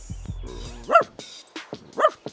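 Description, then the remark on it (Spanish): A dog barks twice, about a second apart, fairly loud, with a few softer yips and low thumps around the barks. “Al día siguiente pasó por allí el perro, que al verla dijo,”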